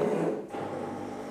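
A coffee machine runs with a steady, buzzing mechanical whir and a low hum, briefly dipping about halfway through before continuing at the same moderate level, with no voices.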